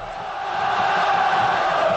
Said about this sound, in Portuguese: Na arquibancada, a torcida fazia a festa.